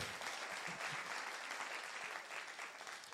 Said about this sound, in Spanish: Si usted lo cree, denle un aplauso al Señor.